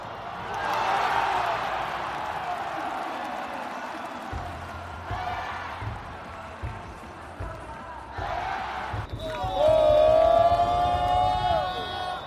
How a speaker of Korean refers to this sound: 저와 함께 하나 이글스 응원 현장으로 함께 가보시고요.